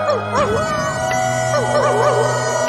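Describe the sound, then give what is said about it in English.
Several wolves howl together in long, overlapping wavering calls that rise and fall in pitch, continuous and fairly loud throughout, with a steady low hum underneath. “she called upon her wolf friends.”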